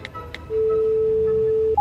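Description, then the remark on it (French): Telephone dialing tones as a phone call is placed: two quick clicks, then a steady low-pitched tone held for over a second before it switches abruptly to a higher beep. No one speaks. “Du coup, dans mon élan, j'ai aussi essayé d'appeler Zoé.”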